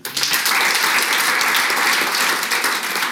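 A live audience at a festival in Ghent bursts into sustained applause, a dense, steady wash of many hands clapping at an even, loud level throughout, with no clear voices on top.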